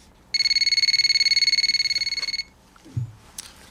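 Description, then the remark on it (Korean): A telephone rings with one loud, high-pitched burst of rapid warbling pulses lasting about two seconds. A soft, low thump follows, and no one speaks. “중고 사이트에 물건을 내놓은 지 며칠 후 한 통의 전화가 걸려왔습니다.”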